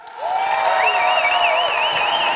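Audience applause welcoming a band breaks out and holds steady and loud, a dense wash of clapping and crowd noise with high, wavering whistles riding over it.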